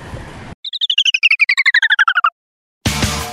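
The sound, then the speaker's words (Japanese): A short travel transition sound effect marking a walk through a housing estate: a rapid, evenly spaced run of about eighteen bright chirping beeps that slide gradually downward, heard on its own between stretches of louder background noise. “再び、移動効果音挿入。”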